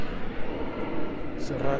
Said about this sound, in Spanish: Hoy los aviones pasan muy bajito.